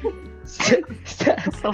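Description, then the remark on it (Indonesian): Two short, harsh coughs separated by a brief pause, with a low background hum underneath. “kenapa di post dong maksudnya batuk sih”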